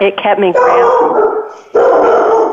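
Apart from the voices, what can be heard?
dog barking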